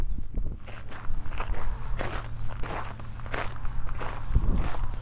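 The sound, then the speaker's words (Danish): Steady footsteps crunching along an outdoor path while walking to visit a stone, a regular walking rhythm with gritty scuffs, over a low background rumble and no voices. “Men der er en sten mere, vi lige er nødt til at gå ned og besøge.”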